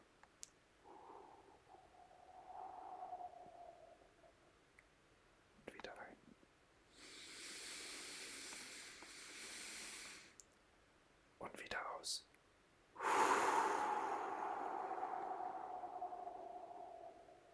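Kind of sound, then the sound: human body sound, deep breathing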